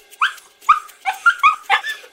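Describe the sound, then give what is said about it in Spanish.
A puppy barks while playing in a quick series of about six high-pitched yips, fairly loud, with short gaps between them and no other sounds. “No, eso suena como un cachorrito jugando.”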